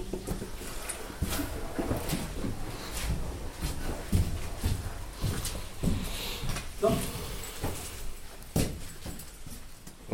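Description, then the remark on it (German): Footsteps crunch quickly over rough, gravelly ground in a mine tunnel, a steady stream of irregular steps as several people walk quickly one after another past a shaft about 50 meters deep, with faint rustling between them. “Wir gehen hier relativ schnell durch, bevor das einbricht, einer nach dem anderen.”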